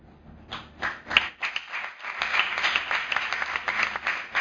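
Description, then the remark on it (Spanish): An audience breaks into applause after a short poem is recited, following a brief pause, many hands clapping in a dense, crackling wash that holds steady and fairly loud to the end, with no talking. “Casi os pediría que no aplaudiréis, pues son tan breves”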